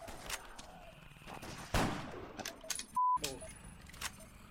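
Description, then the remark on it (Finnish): Sharp bursts of video game gunfire crackle in quick succession as a player shoots at a zombie, with one loud heavy blast in the middle and a brief electronic tone cutting in shortly after, amid a busy, clattering game soundscape. “Sen zombin, kun mä olin ampumassa.”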